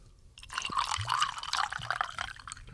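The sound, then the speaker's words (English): Maker's Mark whiskey pours into a cup in a steady, gurgling trickle with bright splashing and dripping, a sustained liquid sound lasting a couple of seconds with no talking over it. “Absolutely, got a little Maker's Mark in the cup.”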